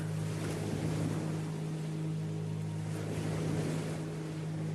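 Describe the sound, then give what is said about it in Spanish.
Continuous washing of sea waves on the shore with gentle swells rising and falling, moderately loud, over a steady low drone; no voices. “Escuchas el mar.”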